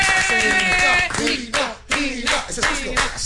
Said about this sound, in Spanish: un aplauso.